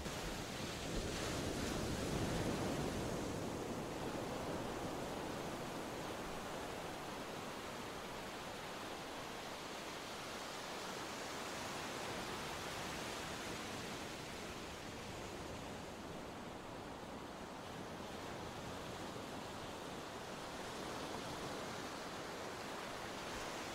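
Steady ocean surf washes onto a beach, a continuous broad roar of breaking waves with gentle swells in intensity, heard alone without any voices.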